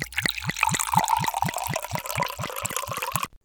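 Bourgogne wine glugs steadily from a bottle into a glass, an even run of about a dozen quick gurgles that stops abruptly, with no voices.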